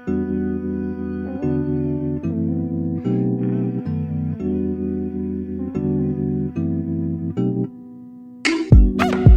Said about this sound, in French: Je vous propose bah, du coup qu'on écoute la musique, voilà.